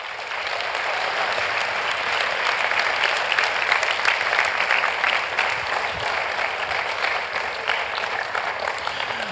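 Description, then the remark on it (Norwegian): Sustained applause from a large crowd for the evangelists, a dense, steady wash of many hands clapping at an even loudness for the full length, with no voices standing out. “Så, så, før vi går videre, igjen, gi på Henrik og de andre evangelistene våre bare en vanvittig applaus fordi at de klarer det.”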